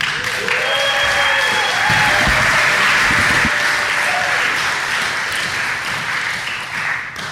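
A room full of people applauds steadily, a dense wash of clapping that holds at a consistent loudness for several seconds with a few whoops and voices mixed in near the start.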